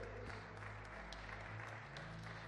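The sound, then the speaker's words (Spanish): An audience applauds steadily for a few seconds, giving glory to God, a dense, even wash of many hands clapping with occasional sharper claps standing out, and no one speaking over it. “si le daron un aplauso, déselo bien fuerte a él.”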